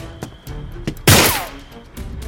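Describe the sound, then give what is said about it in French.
A single loud gunshot cracks out shortly before midnight on a small-town street by a gun shop, followed by a brief descending whistle as the bullet passes over a security guard's head, with a few faint clicks and thumps before it and a fading echo after. “Il n'a pas le temps de traverser la rue qu'une balle siffle au-dessus de sa tête.”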